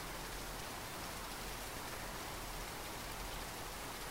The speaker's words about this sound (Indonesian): Kala menatap hujan malam ini, awan-awan tampak bercahaya.